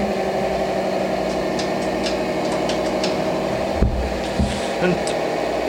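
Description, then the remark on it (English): A spaceship's new anti-gravity engines run just after lift-off with a steady, loud droning hum, continuous throughout, with a few faint ticks and a couple of dull thumps near the end. “until hear them engines going”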